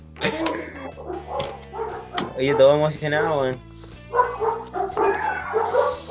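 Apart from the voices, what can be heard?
many dogs barking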